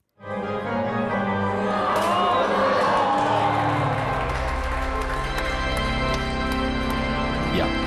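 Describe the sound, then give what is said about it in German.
A large crowd roars and cheers as a goal is scored at a football World Cup match, while an organist accompanies live with sustained organ chords swelling underneath, the organ's steady tones growing fuller as the excited shouting continues at a loud, constant level. “der hat zum Beispiel mal bei einer Fußball-WM die Spiele live auf der Orgel mhm. begleitet.”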